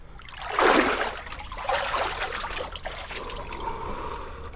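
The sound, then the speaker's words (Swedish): Water sloshes and splashes in a couple of broad bursts as swimmers climb out of very cold water, then settles into softer dripping and trickling, with no voices. “Nu tycker jag vi går upp. Nu vill jag gärna gå upp också. Jag känner mig ganska kall.”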